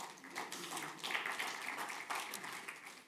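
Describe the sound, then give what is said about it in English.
Steady applause from a crowd for a group of boys who completed a balloon challenge, a dense patter of many hands clapping at once, moderately loud and continuous throughout with no talking over it. “Give them another hand.”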